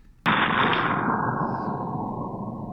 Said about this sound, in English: Suddenly, there is a great boom. Someone has boarded one of the ships and is shooting the cannons. I hear crackling and a crash, the cannonball hitting a tree.